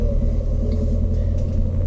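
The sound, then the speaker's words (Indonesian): A motorcycle engine rumbles steadily, a deep, continuous low drone that stays at an even loudness for the whole moment, with no voices. “oh, oh ada motor”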